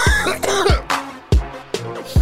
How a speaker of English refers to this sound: Based off of your cough.